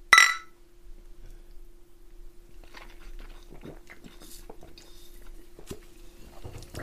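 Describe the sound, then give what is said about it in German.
A single bright clink of glasses in a toast rings out at the start, followed by several seconds of quiet sipping and swallowing with small wet clicks and no talking. “Immer diese Stille nach dem Anstoßen, ey.”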